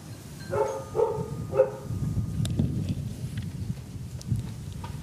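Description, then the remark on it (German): A dog barks three times in quick succession at the door of a house as visitors ring the bell, over a steady rumble of wind noise on a windy day, followed by a few fainter thumps and shuffles. “Oh, der Hund sagt schon Hallo.”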